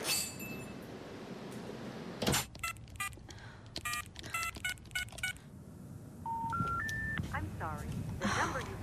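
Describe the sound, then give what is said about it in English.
A quick, uneven run of short beeping telephone keypad tones as someone dials a call from an office, clear, followed by a few rising electronic tones over a low background hum. “I'll phone them from the office.”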